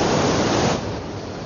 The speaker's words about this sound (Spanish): En el exterior, el agua cae en una presa desde una gran cascada. Junto a ella hay un hotel.